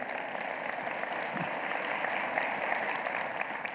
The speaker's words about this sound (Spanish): Le damos un aplauso a Dios en este día por ello.